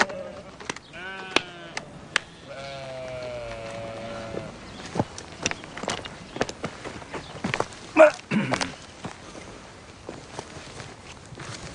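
animal, sheep bleating

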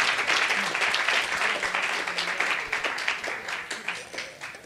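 crowd, audience applause

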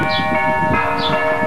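signal or alarm, church bells ringing

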